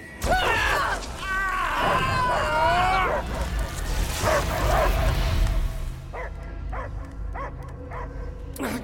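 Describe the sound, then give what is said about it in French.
A dog barks and yips loudly and repeatedly, with whining, excited tones, followed by a run of shorter, evenly spaced barks over a low background rumble. “Il est toujours là Je l'entends J'entends que des aboiements”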